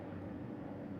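A helicopter drones overhead in LA, a steady low rumble with no voices over it, fairly quiet throughout the brief moment.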